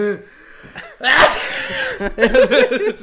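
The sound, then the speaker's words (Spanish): A person mimics the loud, exaggerated sneeze of older ladies: a sharp burst of breath followed by a drawn-out, voiced trailing sound, with a bit of speech before it. “Ahora creo que las señores estornudan muy fuerte ya con el tiempo, güey, porque Pero como que hasta que se recarga.”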